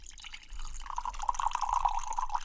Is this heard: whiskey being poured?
yes